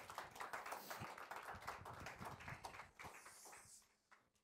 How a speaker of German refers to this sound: Wir geben ihm einen fetten Applaus, das ist die Kultur in unserer Kirche.